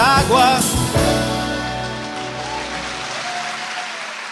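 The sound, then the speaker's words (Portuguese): A Brazilian song reaches its closing moments: a brief burst of instruments, then a sustained final chord that rings out and slowly fades away, with no singing or talk. “De verdad que una música extraordinaria, letras que para qué les voy a contar, con un contenido y con una poesía única, diría”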